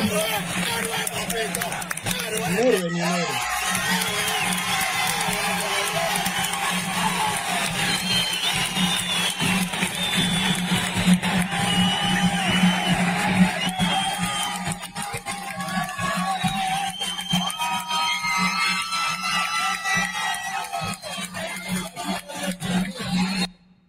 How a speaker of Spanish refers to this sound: otro video que es este de los aplausos